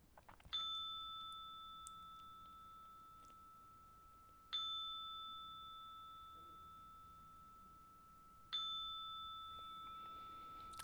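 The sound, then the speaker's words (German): A meditation chime rings three times, about four seconds apart, to lead into a guided meditation; each strike is bright and clear with a long, slowly fading shimmer. No voices, just the tones against quiet ambience. “Und wenn es dreimal läutet, dann ähm, führt es dich rein und bei dreimal Läuten führt es uns wieder raus.”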